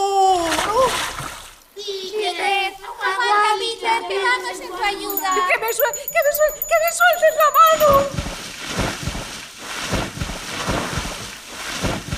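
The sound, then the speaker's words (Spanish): A loud splash as a man drops into water, with excited voices in the middle and a long stretch of churning, sloshing water at the end. “¡Hombre al agua!”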